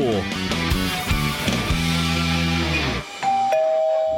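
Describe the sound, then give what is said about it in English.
A doorbell rings out a bright, melodic chime of several quick tones for about three seconds, followed by a lingering higher ring. It is clear, with no voices. “Do you hear that? That's your family coming round to your new house for Sunday lunch.”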